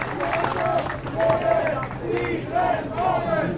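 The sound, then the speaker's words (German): About 200 rent protesters gathered on a Tuesday afternoon outside the corner building at Wiener Straße 22 / Olauer Straße 2 in Kreuzberg, Berlin, murmur and call out together, a dense, steady wash of many overlapping voices with occasional louder shouts rising above the din. “Vor dem Eckhaus Wiener Straße 22, Olauer Straße 2 in Kreuzberg haben sich an diesem Dienstagnachmittag rund 200 Menschen ja, versammelt.”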